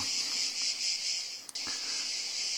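A dense, continuous drone of cicadas on a Sunday at the Mondial la Marseillaise pétanque tournament, steady and shrill with a slight pulsing. A single sharp click cuts through once midway, with no voices present.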